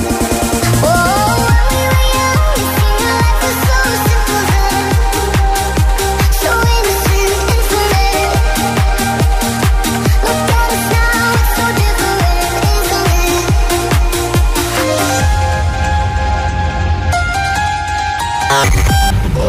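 A dance-pop cover song plays loud, driven by a steady pounding beat under layered synths, shifting into a sparser breakdown near the end, with no one talking.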